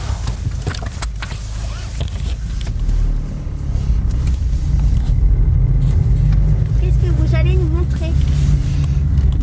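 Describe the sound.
A white Renault Kangoo small utility van's engine rumbles steadily and grows louder as it drives up in the morning to a school farm, with a low, continuous drone and faint voices in the background.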